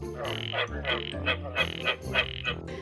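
Frogs croak in a steady chorus, with repeated throaty pulses about every third of a second and overlapping calls. The sound is clear, and no one is speaking.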